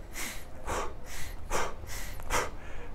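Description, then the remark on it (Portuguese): Someone demonstrates rapid, shallow breathing, about six quick airy breaths in three seconds, with no talking in between. “Não é ficar respirando rápido”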